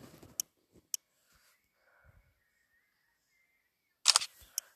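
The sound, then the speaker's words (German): Camera shutter clicks as a photo is taken with the flash turned on: two crisp isolated snaps early on, a quiet pause with a faint hum, then a louder rapid cluster of shutter clatter and one last click near the end. “Na, dann mache ich halt zuerst das Foto von mir aus.”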